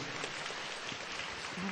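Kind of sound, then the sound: crowd, applause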